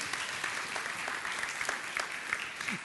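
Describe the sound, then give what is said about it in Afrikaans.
An audience claps steadily, a dense wash of many hands with bright crackling slaps that holds at an even level for a few seconds, no voices standing out. The audience is giving another round of applause to the people under 30 who stood up. “Geef hulle lekker 'n ander klap toe.”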